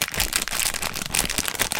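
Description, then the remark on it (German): Crinkly rustling of a plastic fruit gummy candy package, a steady stream of crackling bursts lasting a couple of seconds with no one speaking. “Weder kann ich Geschmack rüberbringen, noch kann ich es zeigen, aber ich kann mit der Packung rascheln.”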